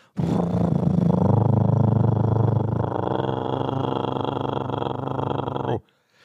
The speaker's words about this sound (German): Was ist das? Das ist eine, das ist eine Bohrmaschine beim Nachbarn, oder?